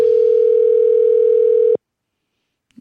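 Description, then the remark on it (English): A loud, steady electronic ringback tone from an outgoing phone call hums for nearly two seconds, then cuts off into silence, followed by a faint click near the end. “With that, we'll see if they pick up.”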